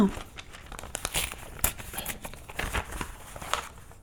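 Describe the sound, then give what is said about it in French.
Paper crinkles and tears as a blue envelope with a name written on it is opened, a busy run of sharp rustles and crackling bursts lasting several seconds at moderate loudness. “C'est quoi ça Quoi donc L'enveloppe bleue avec ton nom dessus.”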